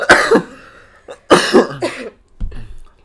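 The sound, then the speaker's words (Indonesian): A series of harsh coughs in quick bursts, a double cough, then another strong pair, followed by a softer throat-clearing cough at the end. “Nape batuk ya, sih?”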